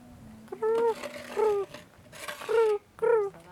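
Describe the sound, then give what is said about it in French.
A person mimics their own cat's clucking chirp, the sound it makes when jumping on the bed, with four short, trilling chirps in an uneven rhythm and quiet pauses between them. “il y a des chats qui font ça ici aussi, … ouais, la mienne, elle glousse”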